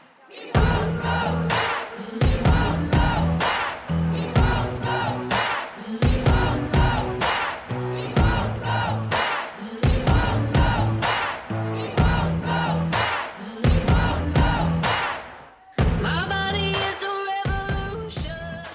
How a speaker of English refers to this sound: And then I saw the video that I took when we were shouting, We will go back.